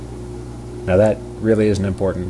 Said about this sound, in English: I am sitting next to my dishwasher and it is in the middle of a load of dinner dishes.